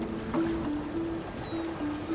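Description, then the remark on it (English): Soft water laps steadily against wood while low, drawn-out creaks of wooden hulls groan in several short stretches, fairly quiet, with no voices. “Except for the lapping of water and the creaking of wooden hulls, all is quiet.”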